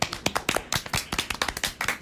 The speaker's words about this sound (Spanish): Pero está bien, si llegaron hasta aquí. ¡Un aplauso!